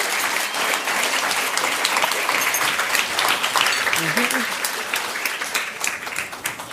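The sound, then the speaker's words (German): Sustained audience applause as Anja Rützel is called onto the stage, a dense crackle of many hands clapping at steady loudness for several seconds, with a brief murmured voice heard faintly partway through. “Insofern bitte ich die mal auf die Bühne. Und unter einem großen Applaus gerne.”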